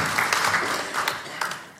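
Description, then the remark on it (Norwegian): A crowd applauds steadily, a dense wash of many hands clapping at a fairly even loudness with a few sharper claps standing out, as an audience welcomes a singer at an evening programme on Norwegian broadside ballads (skillingsviser). “En gigantisk applaus.”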